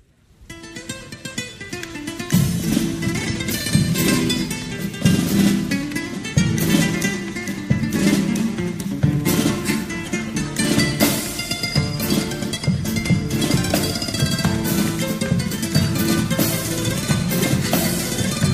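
A carnival comparsa pasodoble plays, rising from a soft opening into full, steady music with dense, sustained harmonies that continue at an even volume throughout, with no one talking over it.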